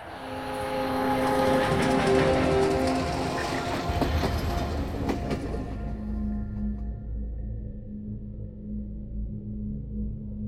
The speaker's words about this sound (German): Jeden Dienstag verlässt ein Zug das Lager Westerborg in Richtung Osten. Wieder Viehwaggons und da die Gleise durch die Mitte des Lagers führen, ist der Zug von allen Seiten gut zu sehen.